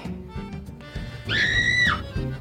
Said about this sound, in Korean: 어디선가 들리는 비명 소리.